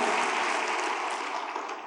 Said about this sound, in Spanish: fuerte aplauso al Señor, al poder de su palabra y tome su lugar.